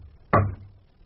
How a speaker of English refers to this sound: Uh, certainly. Uh, just a minute. I'll bang on the communicating door.